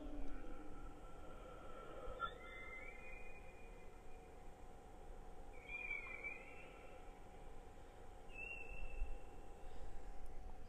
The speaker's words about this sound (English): and whales can also whistle.